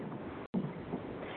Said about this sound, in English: You can. You can. There's a little bit of static in the line, but you can be heard.